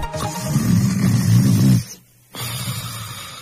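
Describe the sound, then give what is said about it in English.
A customer of Blue Rock IT, sleeping soundly at night, snores heavily: a long, rumbling rasp, a brief silent pause, then the next snore begins. No one speaks. “This is the sound of one of our customers sleeping soundly at night.”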